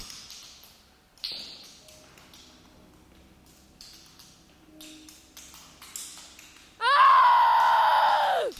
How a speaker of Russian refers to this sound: От пронзительного Мишкиного крика вздрогнула даже Эльза.